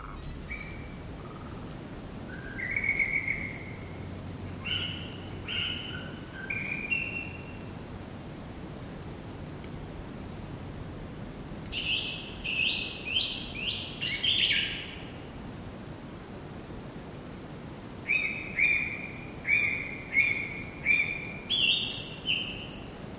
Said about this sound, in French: c'est le chant d'un oiseau enregistré par Patrick Avakian